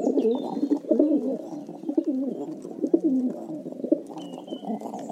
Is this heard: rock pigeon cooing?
yes